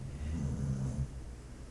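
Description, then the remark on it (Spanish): A dog snoring late at night, around one o'clock: one low, rumbling snore lasting under a second, fairly quiet, then fading into soft background hiss with no talking. “Bueno, esos ronquidos que escuchas son de mi perro.”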